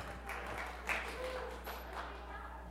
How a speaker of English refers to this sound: is that golf applause or what?